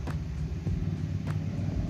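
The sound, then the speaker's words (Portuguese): Steady low rumble of a car interior while driving, with a constant deep road-and-engine drone and a couple of faint brief clicks, no voices. “Nossa, gravar no carro é muito barulho.”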